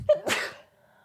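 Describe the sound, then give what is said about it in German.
A single fairly loud sneeze: a short sharp intake followed by a bright, breathy burst that trails off quickly into near silence. “Hast du nochmal gen genießt?”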